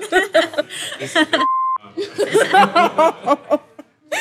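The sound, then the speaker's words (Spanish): A single steady, mid-pitched censor bleep cuts in for under half a second, replacing a spoken word, with people talking and laughing before and after it. “Censúrenlo.”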